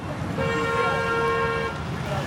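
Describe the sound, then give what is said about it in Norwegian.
Busy street traffic in Benin with motorcycles buzzing, and a steady horn blast of just over a second rising above the constant road rumble. “Mange av motorsyklene som vanligvis svirrer rundt i trafikken i Benin, er produsert i Kina, og kvaliteten kan variere mye.”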